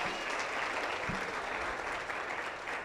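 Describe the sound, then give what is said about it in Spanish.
An audience at a church service applauding the Lord steadily, a dense wash of many hands clapping at once that stays loud and even throughout, with no voices standing out above it. “Dele un fuerte aplauso al Señor y póngase de pie.”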